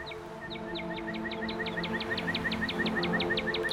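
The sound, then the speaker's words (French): A northern cardinal sings a rapid, steady series of bright, sliding whistled notes, repeated evenly about five times per second, with a faint low hum underneath. “donc, ouais, les, cardinaux ont quand même plusieurs types de chants possibles.”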